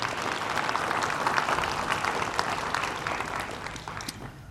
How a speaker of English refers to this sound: So you join me in just saying thank you to them uh, with a round of applause.